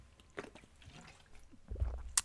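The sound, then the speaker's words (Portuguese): Quiet mouth sounds of someone sipping water: small wet smacks and a soft gulp near the end, followed by a brief sharp click, with no talking. “Pá, e está-me a saber bem esta água.”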